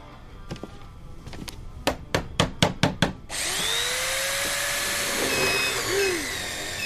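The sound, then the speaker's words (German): A hammer strikes wood about eight times in a quick, steady rhythm while a small cabinet is being assembled, the blows growing louder, then a loud continuous whirring, roaring noise takes over and runs to the end. “Ich krieg das Schränkchen irgendwie nicht alleine aufgebaut.”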